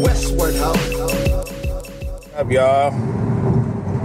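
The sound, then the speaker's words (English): A steady low rumble of road noise from a moving car runs throughout, loud and continuous, with a man talking over it. “I didn't have time to record, so I had to hurry up and do something while I'm on the road.”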